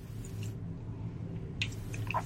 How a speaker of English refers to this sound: As I take a sip of water